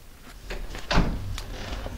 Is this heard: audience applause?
no